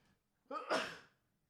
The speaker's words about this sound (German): Ich musste gerade niesen, hat man wahrscheinlich gehört.